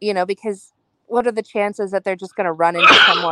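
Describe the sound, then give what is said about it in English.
A single sharp sneeze bursts out in the middle of a person's sentence, loud and brief, with talking just before it. “Bless you.”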